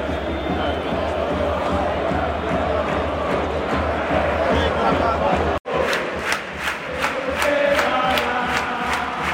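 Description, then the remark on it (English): A loud football stadium crowd in Spain roars and chants continuously, singing "Vamos Campeón", a dense wall of voices; after a brief cut, rhythmic bursts of clapping or chanting pulse steadily above the din. “Listen how loud it is, it's brilliant.”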